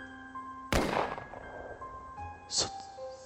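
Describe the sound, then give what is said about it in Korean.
A sharp, loud gunshot cracks out and rings off in a long decaying tail, then a fainter second bang follows, all over a steady, humming musical drone. “내가 생각에 잠겨 있을 때쯤 다시 한번 총소리가 울려 퍼졌다.”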